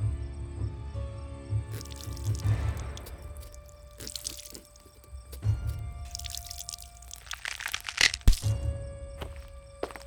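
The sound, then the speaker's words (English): Wet cracking and crunching of bone as a head is cut off as a sacrifice, with sharp snaps and splattering drips over a low rumbling background, fairly loud, with no voices. “Now, let's take that head”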